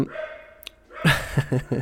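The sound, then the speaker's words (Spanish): A dog barks four times in quick succession after a brief quiet stretch, sharp and moderately loud, with no talking over it. “Entonces, eh, ah, me encantan, pero porque siempre tienen que ladrar en el momento menos indicado.”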